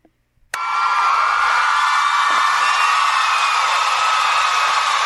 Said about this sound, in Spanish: Aplausos, por favor.